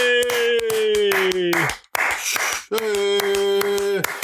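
Quick, crisp clapping for a prize winner comes in two bursts with a short pause between, while a long, steady voiced whoop or cheer holds over much of it.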